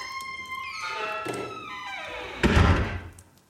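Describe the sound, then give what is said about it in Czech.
A door swings open on a squeaky hinge as a doctor enters, its drawn-out creak sliding downward in pitch before a single solid thunk. No one speaks. “Po vteřině otvírají se dveře a vstupuje doktor a ukloní se.”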